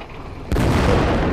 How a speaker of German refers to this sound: Und das Schiff explodiert.